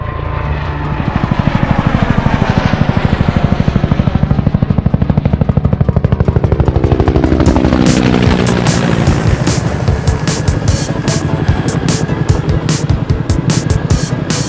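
A loud helicopter runs steadily, its rotor beating in a fast, continuous chop while the engine's whine rises in pitch, with no voices over it.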